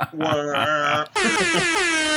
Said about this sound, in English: Ding ding ding ding ding. Mark Fisher bell. Yeah, the Mark Fisher air horn just goes off in the background.